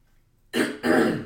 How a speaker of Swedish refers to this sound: Jag var tvungen att harkla mig för jag kände att jag tappade rösten.